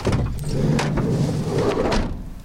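A police van's sliding door rumbles open over a steady low engine idle, with a few brief clunks and scrapes as two people climb out at a drug house.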